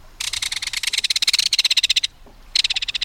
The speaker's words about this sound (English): There's no other sound along a stream or waterway quite like the reverberating metallic call of a belted kingfisher.